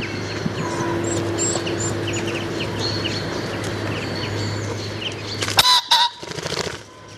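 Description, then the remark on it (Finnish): Soft pigeon cooing in courtship and scattered bird chirps over a steady low hum, then near the end a pheasant that walked up in front of the microphone gives a sudden, loud, harsh double call followed by a brief rustle. “Että tuota, siinä, siinä, tuli fasaani tuli siihen mikrofoni eteen ja käveli. Sitten siinä myös pulut kujer soidin ja koirakin vinkuu tarkkakorvasta ehkä kuulin, Joo.”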